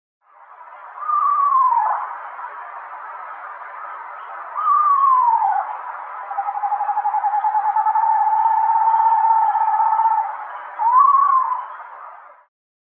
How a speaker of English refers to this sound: Yeah, and they have a bunch of different calls too, but a lot of people when I do play the call, they're like, that was not an owl, that was a horse. So Yeah. Okay, so here it is.